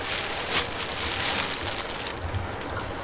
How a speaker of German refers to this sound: Und wenn ich ehrlich bin, hier drin gefällt mir der Regen sowieso besser.